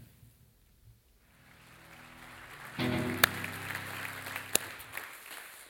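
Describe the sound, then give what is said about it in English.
A mostly white crowd applauds, starting as a faint patter and swelling into dense, steady clapping around the midpoint, with a couple of sharp louder claps standing out near the end. “Look at you, mostly white people, clapping.”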